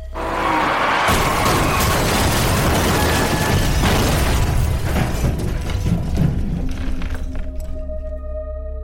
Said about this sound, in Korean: 당신의 차 앞바퀴는 원래 사고 지점보다 5, 6m 앞선 지점에서 인도턱을 긁어대다 펑 터집니다. 그러고는 인도를 타넘는 대신 타이어 펑크로 생긴 피쉬테일 현상으로 차도를 이리저리 갈팡질팡하다 꽁무니부터 번쩍 들리더니 대굴대굴 휘돕니다.